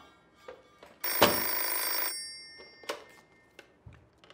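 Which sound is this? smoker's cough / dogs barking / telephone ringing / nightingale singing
telephone ringing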